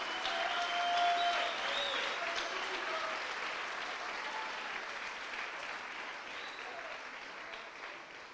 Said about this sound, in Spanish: Dele palmas a su regalo, nuestro Señor Jesucristo.